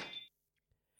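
A door chime at a practice gives one bright, ringing metallic strike as a patient enters, fading within a fraction of a second, followed by near silence and a faint shimmer at the end. No one speaks.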